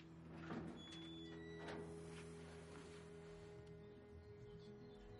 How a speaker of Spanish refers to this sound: abre la puerta del jardín.